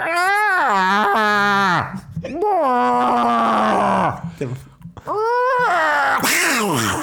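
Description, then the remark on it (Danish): A person imitates cats yowling before a fight: three long, loud, wavering moans, rising and falling in pitch with brief pauses between them. “kigger på den anden kat, og så udstøder de øh, sådan nogle lyde, der lyder lidt ligesom, hvis man øh, torturerer Chewbacca.”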